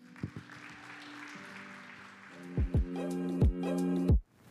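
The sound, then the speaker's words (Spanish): A church audience applauds the Lord in a steady wash of clapping, with sustained low keyboard tones and several deep, booming drum hits underneath, before it cuts off abruptly. “Un aplauso al Señor.”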